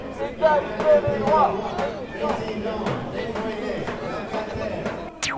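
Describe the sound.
A dense, steady murmur of many voices talking at once outdoors, with occasional sharp knocks and footsteps cutting through the crowd noise of a street demonstration launched by DAL on Saturday 19 October, calling for equal rights for hostel residents and tenants.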